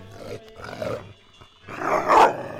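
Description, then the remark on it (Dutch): A small dog, a poodle with a short tail, the smallest of its litter, growls and barks in three fairly loud bursts, the last one the strongest, with brief pauses between and no voices. “Dat was een uh, poedel, kleinste uit het nest.”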